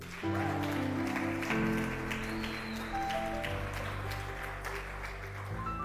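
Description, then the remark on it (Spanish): An audience applauds steadily for several seconds as an applause for Jesus, a dense wash of clapping layered over sustained, held musical tones playing underneath throughout. “Dar un aplauso a Jesús.”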